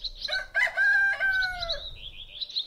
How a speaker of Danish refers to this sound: Og nej, det er ikke dit sædvanlige vækkeur, der ringer. Det er et gammeldags vækkeur. Det er nemlig hanen, der galer meget tidligt om morgenen.